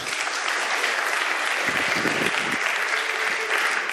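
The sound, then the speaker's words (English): An audience breaks into steady applause for brave volunteers, many hands clapping in a dense, continuous patter that stays loud and even for about four seconds with no voices standing out. “Give all those brave volunteers a round of applause, folks.”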